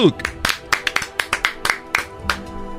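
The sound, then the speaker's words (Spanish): A short round of applause for the guest, El Tuca Ferretti: sharp, bright claps in a fairly steady rhythm, about a dozen distinct hits over a few seconds, with a faint murmur of voices underneath. “Un aplauso para el”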